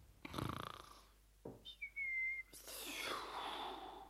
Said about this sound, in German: und das heftige Schnaufen klang ganz und gar nicht nach Schlafen, sondern viel eher nach Atemlosigkeit vom schnellen Laufen.